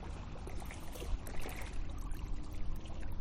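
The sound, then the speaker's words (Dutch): Water from the wake of a small boat that has just passed laps and sloshes against the shore, a steady splashing with irregular little surges and no voices. “er is net een bootje voorbij gekomen. Misschien hoor je nou het water zo aan de kant.”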